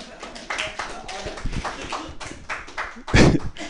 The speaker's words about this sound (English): That's how you get an applause break. Just tell them to applaud.